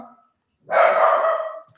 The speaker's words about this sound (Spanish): Espérenme, déjenme callo al perrito.